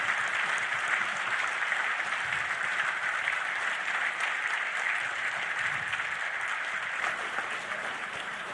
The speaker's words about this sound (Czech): Ať je Bůh požehná. Můžeme zatleskat a přivítat našeho bratra mezi námi.